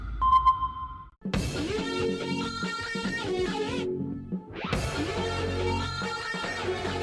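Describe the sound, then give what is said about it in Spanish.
A single sonar-style ping rings out alone for about a second, a clear electronic tone, before a loud, dense musical stinger bursts in and plays twice, as the jingle of the Radar Speed car radio programme. “Radar en operación.”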